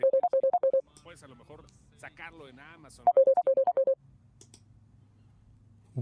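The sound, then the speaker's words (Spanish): A phone ringtone sounds twice for an incoming call from the speaker's wife, each ring a quick string of bright electronic beeps, clear. Someone talks briefly between the two rings, and a low hum lingers afterward. “¿Se escucha eso? Sí. Ah, pues es mi, esposa.”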